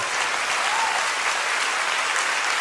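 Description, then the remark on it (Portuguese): An audience at a church service bursts into sustained applause during a sermon, a dense, steady wash of many hands clapping at even loudness throughout, with no one speaking over it. “Dá uma salva de palmas, meu Deus do céu.”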